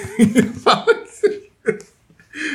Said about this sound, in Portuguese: Bom arroto. Bom arroto, bom espirro, cara.